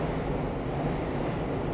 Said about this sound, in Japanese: 今ちょっと後ろ電車の音もうるさくてすいません